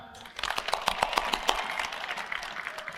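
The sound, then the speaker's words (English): An audience breaks into applause for themselves, starting with a few sharp, scattered claps before swelling into a steady wash of many hands clapping at moderate volume, with no one speaking over it. “Give yourselves a clap.”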